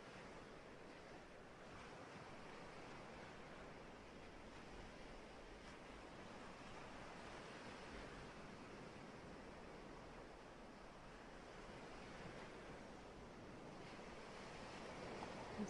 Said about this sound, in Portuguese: Ouça as ondas que vêm e que vão. respiração nas ondas do mar.